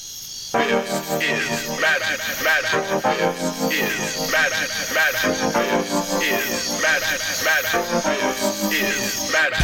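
A music track plays steadily at full volume, with layered harmonic tones, repeating melodic phrases and a continuous dense backing that fills the whole clip after a brief quiet start.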